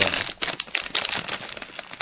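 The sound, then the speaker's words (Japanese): A snack package is crinkled and torn open, a dense run of crackling, rustling plastic that swells and fades over two seconds with no voices. “じゃあ開けてみますよ。開けた、開けた直後の匂いを、”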